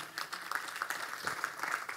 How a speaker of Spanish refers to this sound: Si usted lo cree, den un aplauso fuerte al Señor.